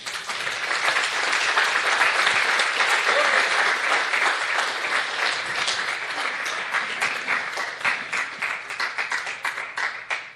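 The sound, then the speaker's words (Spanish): An audience bursts into sustained applause for the Lord, a dense, bright wash of many hands clapping steadily for about ten seconds, gradually thinning into more distinct individual claps toward the end. “Yo le daría un aplauso al Señor, hermano.”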